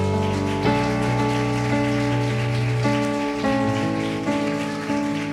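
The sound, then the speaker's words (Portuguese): An audience applauds the Lord in a steady, dense patter of clapping, layered over sustained keyboard chords that shift every second or so. No one speaks. “Aplauda ao Senhor.”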